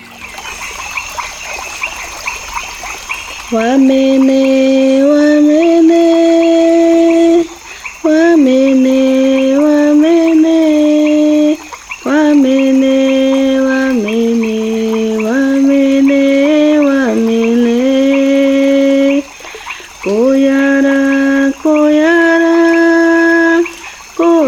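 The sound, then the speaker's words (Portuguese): Amazon rainforest ambience: a steady high insect drone runs throughout, while a loud, tonal, melodic calling in stepped, held pitches repeats in phrases separated by short pauses. “Mas antes de subir nossa vinheta, vamos nos transportar através da escuta para a paisagem da floresta amazônica?”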